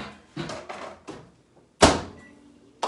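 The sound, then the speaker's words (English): A few soft bumps and rattles, then a single loud, sharp clunk as a microwave oven door is shut on a Dollar Tree Fast Bites chicken sandwich wrapped in a paper towel, followed by a quiet stretch and another brief knock at the end. No one speaks. “Gonna wrap it up and put it in the microwave.”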